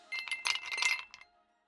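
Glasses clink together in a toast, a quick cluster of bright, ringing taps over about a second, with a faint shimmer fading out at the end.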